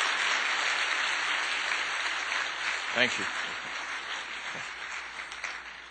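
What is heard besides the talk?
audience applause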